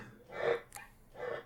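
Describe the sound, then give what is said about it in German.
A chair squeaks twice with a drawn-out, fart-like creak, separated by a brief sharp click. The sounds are moderately loud, with no one talking. “ist kein Furz, das ist mein Stuhl.”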